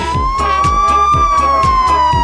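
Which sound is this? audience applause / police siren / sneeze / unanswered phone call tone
police siren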